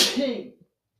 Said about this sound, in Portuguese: Vou espirrar.